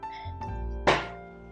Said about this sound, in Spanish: Ahora ese putazo que fue. fue mi silla, perdón.